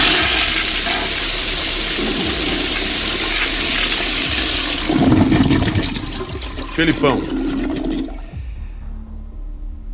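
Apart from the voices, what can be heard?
toilet flush sound effect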